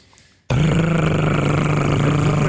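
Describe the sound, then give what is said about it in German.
A voice imitates the loud, rumbling engine of a small, very old Ikarus bus, a steady low growl that kicks in abruptly after a brief quiet moment and drones on without a break. “Das ist ein sehr alter und lauter Bus.”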